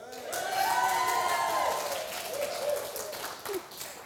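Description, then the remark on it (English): A round of applause after a baton twirling demonstration: steady, dense clapping that lasts the whole few seconds, with loud whooping and cheering voices rising over it, then thinning out toward the end. “Cheer, round of applause.”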